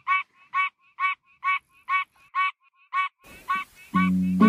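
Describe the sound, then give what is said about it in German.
A duck quacks about ten times in a steady, evenly spaced rhythm, loud, before a rush of noise and a sustained musical tone come in at the end. “Vielleicht wollt ihr ja auch einmal einen Froschtag oder einen Ententag ausprobieren. Quack!”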